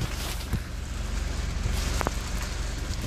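Steady outdoor wind on a very windy day, with dry leaves blowing around, rustling and skittering, a continuous crackly hiss with a few sharper scrapes, moderately loud, no voices.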